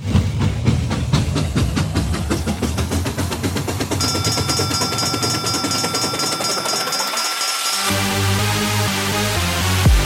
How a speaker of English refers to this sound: But hold on tight. I think this train's about ready to move.